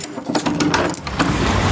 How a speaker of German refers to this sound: Ach, Scheiße, wo habe ich denn den Schlüssel jetzt dafür? Warte mal ganz kurz. Muss Mal kurz aufschließen. Die Tür hier.